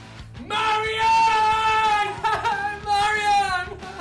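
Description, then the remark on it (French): A man howls and screams in two long, drawn-out wailing cries, loud and strained, heard through a partition wall that the howls make tremble, with a faint low rumble underneath and no other talking. “Car de nouveaux hurlements font déjà trembler la cloison.”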